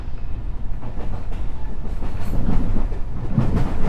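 A JR West 207 series electric commuter train on a Gakkentoshi Line rapid service between Kyobashi and Kizu, Japan, rumbles steadily along the rails, its low wheel noise swelling slightly louder with faint rhythmic clacks, with no one speaking.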